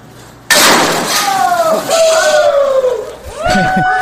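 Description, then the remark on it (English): A puffing gun fires with one sudden loud blast, and a crowd breaks into excited shouts and whoops that carry on after the bang. “But maybe before we take the car- caller, we'll play this little clip of the puffing gun.”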